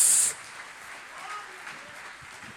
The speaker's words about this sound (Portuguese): Quem recebe esta palavra, aplauda o nome do Senhor Jesus.